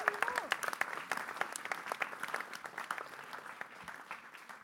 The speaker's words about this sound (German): Und ja, gerne einen großen Applaus. Er macht das sensationell.